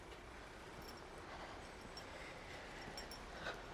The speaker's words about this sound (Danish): Endnu en bil. en bil mere til venstre, og stadigvæk hus på højre hånd.